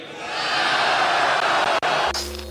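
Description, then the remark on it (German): A loud crowd cheers and roars on a Fritz radio segment in a dense, sustained wash of voices for about two seconds, then cuts off abruptly into a low hum and a short tonal sting. “Und jetzt jubelt!”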